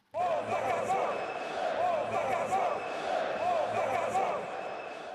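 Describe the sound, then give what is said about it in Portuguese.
A large crowd of Corinthians supporters chants and roars together in a steady, dense wash of voices, loud and continuous with rising swells, in the stands at the Paquembu during a Campeonato Brasileiro match against Corinthians. “O atacante frio e calculista não conseguiu driblar a emoção ao ouvir a torcida do seu antigo clube gritar.”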